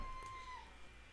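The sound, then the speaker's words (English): A cat named Carini gives a single drawn-out meow that slides slightly downward in pitch, fairly faint, with no talking over it. “That is my cat.”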